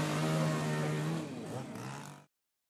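A chainsaw roars loud, its engine holding a steady whine, then dipping and shifting pitch as it bites into a large wooden log before stopping abruptly. It is chainsaw art, carving a large tree into a prayer statue at the Kibou no Kane shopping street in Onagawa, Miyagi Prefecture, Japan, during a summer festival event.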